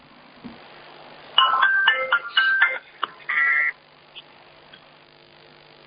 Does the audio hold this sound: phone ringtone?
yes